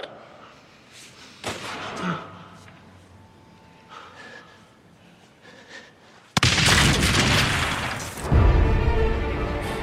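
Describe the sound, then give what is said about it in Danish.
Quiet, murmuring ambience is suddenly broken by a huge, loud explosion boom outside that fills the space with a sustained roaring rumble and crackling debris, continuing to the end. “Det er altså, kæmpe brag. Eksplosion, ja. der sker udenfor.”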